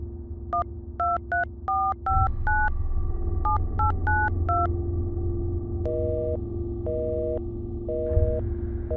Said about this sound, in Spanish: Mi pareja tomó el teléfono y marcó el número de regreso.